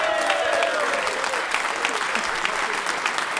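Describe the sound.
A crowd applauds steadily, a dense wash of many hands clapping at close range, with some faint voices and a brief whistle-like tone early on.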